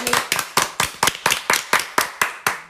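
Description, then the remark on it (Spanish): A single person claps about ten times at a steady, fairly quick rhythm, each clap sharp, crisp and bright, with no voices over it. “un aplauso para”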